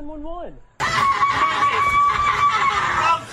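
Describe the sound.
A brief falling voice gives way to a woman's piercing, sustained scream for help that erupts suddenly and holds loud and strained for over two seconds before cutting off, coming from a van parked on a dark street at night in Los Angeles.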